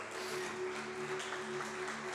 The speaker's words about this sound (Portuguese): Aplauda Jesus bem alto, queridos.